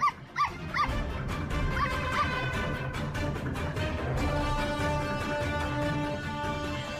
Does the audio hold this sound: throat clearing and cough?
no